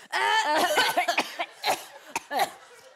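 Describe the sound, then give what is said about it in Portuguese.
A voice acts out crying mixed with coughing: a wavering, sobbing wail broken by several sharp coughs in quick, uneven bursts. It is fairly loud, with no other talk. “Às vezes, choro e tuço.”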